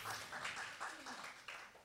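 An audience applauds, a soft, steady patter of many hands clapping together for a couple of seconds, fairly quiet and continuous without any voices standing out.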